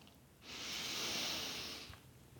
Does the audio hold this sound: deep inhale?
yes